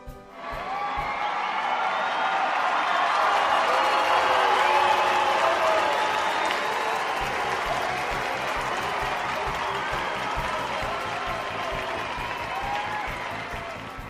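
Steady audience applause fills the whole stretch, a dense wash of many hands clapping with a few scattered cheers and voices mixed in, holding loud before easing slightly toward the end.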